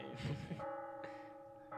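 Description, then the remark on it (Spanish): Church bells ring out in a few spaced strikes, each leaving a sustained, humming tone that lingers between hits; the sound is moderately quiet, with no talking. “Es como de ya, ya empezaron subir con el podcast, pues pegan las campanas.”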